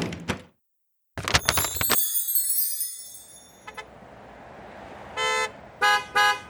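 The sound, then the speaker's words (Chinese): Car horns blare in a loud overlapping burst on a street full of cars outside a department store, then a steady rumble of street traffic follows, broken near the end by three short, bright honks in quick succession. “走出了百货公司。哇，眼前全都是车子。”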